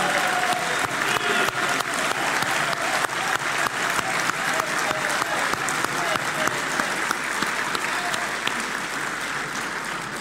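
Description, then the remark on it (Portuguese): Sustained applause from a large crowd at a Portuguese political party gathering, applauding the party's Santarém district organization, dense and steady clapping at a consistently loud level for the whole stretch, with a faint murmur of voices mixed in. “Eu queria agradecer muito a par da nossa Distrital de Santarém, liderada pela Manuela Estevão, quem peço uma salva de palmas.”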